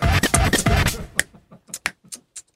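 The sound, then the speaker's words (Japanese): A second of dense rustling or scratching gives way to about five dull, low-pitched finger snaps, spaced unevenly, in otherwise quiet surroundings. “俺の指パッチン低くない音。低い。”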